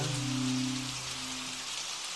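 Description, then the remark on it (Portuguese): Steady rain patters on a hard surface, a dense continuous hiss throughout, with a low humming drone underneath that fades partway through. No voices are present. “Enquanto chove, as coisas não parecem bem.”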